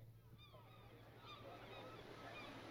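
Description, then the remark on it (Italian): Seagulls give harsh, repeated cries in several short bursts over a steady rush of sea waves and wind-like surf noise. “Per qualche tempo i due rimasero a perdere lo sguardo nelle danze flessuose dei gabbiani, ascoltando il loro stridere sconnesso mescolato alle onde del mare e all'indistinto vociare della città più in basso.”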